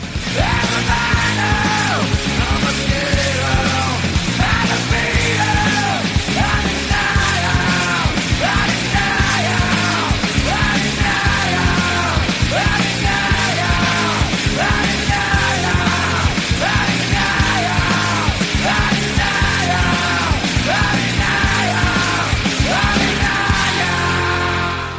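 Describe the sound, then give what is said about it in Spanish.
A loud, dense grunge rock song plays at full volume, distorted guitars and pounding drums driving steadily while a raw voice yells and screams the closing vocals over the band. “Así acaba esta canción”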